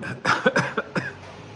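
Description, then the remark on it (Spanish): A quick fit of four or five harsh coughs in rapid succession as someone chokes on water they drank while trying to speak at the same time, trailing off into quiet background noise. “tomé agua y iba a hablar a la vez. me estaba ahogando, un agua de presa buenísima.”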